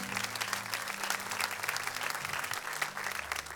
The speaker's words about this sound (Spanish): Denle un fuerte aplauso, soy Dios, casa de Jesús.